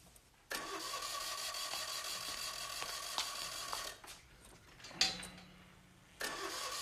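A car engine starts abruptly and runs loudly for a few seconds, cuts out, gives a brief knock, then starts up again, with no voices.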